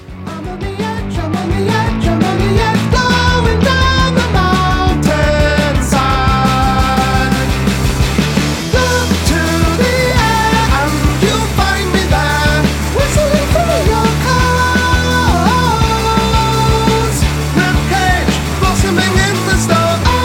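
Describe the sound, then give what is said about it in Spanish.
A loud, dense metal song plays continuously for about twenty seconds, driven by soaring, epic distorted guitars over a heavy, steady rhythm section, with high screamed falsetto vocals cutting through. “es un poco lo mismo, pero eh, en su vertiente, bueno, mm, barra metal.”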